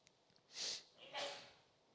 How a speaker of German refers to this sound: Gesundheit.